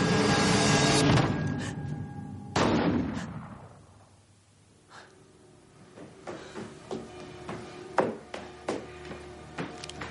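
Two loud gunshots boom about two seconds apart, each leaving a long rumbling decay, followed by a stretch of quieter scattered clicks and taps. No one speaks.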